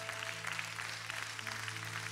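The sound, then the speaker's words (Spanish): An audience claps for God during a sermon for a couple of seconds, a dense, even patter of many hands, fairly quiet, with a low sustained hum running underneath throughout. “Dale fuerte aplauso a Dios.”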